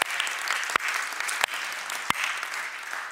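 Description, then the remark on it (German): An audience in Nürnberg applauds steadily for friends in Ansbach and Erlangen and online viewers, a dense wash of clapping with a few sharper, louder claps standing out at intervals. No one speaks over it. “Hey, und wir wollen erstmal hier aus, aus Nürnberg unseren Freunden in Ansbach und Erlangen und auch allen, die online zuschauen, mal einen riesen, riesen Applaus geben.”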